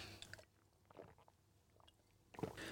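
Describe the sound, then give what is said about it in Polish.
Someone takes a sip of a drink: soft wet slurping and swallowing, with a short burst at the start and another at the end, quiet and without any talking. “Łyk wezmę.”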